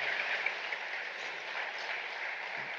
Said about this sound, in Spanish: un aplauso para mi papá, que va a ser ejemplo esa tarde.